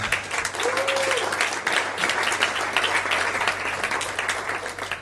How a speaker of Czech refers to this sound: No, pojďme jim zatleskat ještě teda.